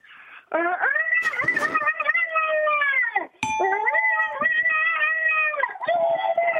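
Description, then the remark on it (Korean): A voice imitates a chicken angry that people haven't woken up though the sun is already high, with two long, strained, wavering squawks, loud, separated by a brief gap, with no other talking. “아, 해가 중천에 떴는데 안 일어나서 열받은 닭.”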